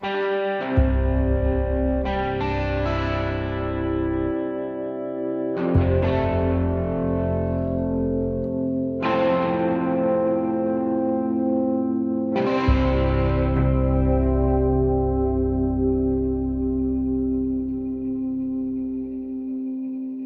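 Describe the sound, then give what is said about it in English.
Distorted, amplified electric guitar plays about five loud chords, each struck and left to ring and sustain for several seconds, with a thick, buzzing tone and no voices. “So, um, and f- roughly from the, the 1960s to present, it was one constant uh, that's through the ethers, through the air, is the sound of uh, uh, amplified guitar.”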